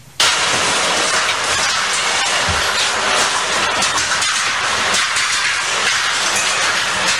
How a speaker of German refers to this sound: Ich sag auch Alltagsgeräusch. wie Regen, der auf irgendwas prasst. Geiles Lied, ne? Wäre ein geiles Lied, aber es ist der Abriss eines Hauses, eine ah. Baustelle.